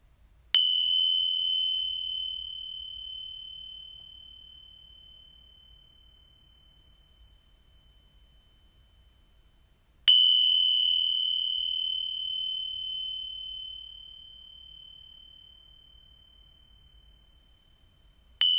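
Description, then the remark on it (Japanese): Purification chimes are struck at the close of a healing session, each ring a sustained high, pure tone that fades slowly over many seconds; strikes come about ten seconds apart, with a third just beginning at the end, and no talking. “浄化の転写を鳴らしていきたいと思います目をつぶれる方はつむって静かな気持ちで聞いてください”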